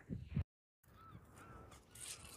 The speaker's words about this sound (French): Tu peux peut-être entendre les mouettes derrière moi. Je suis en train de marcher sur les galets et j'ai vu directement sur l'océan.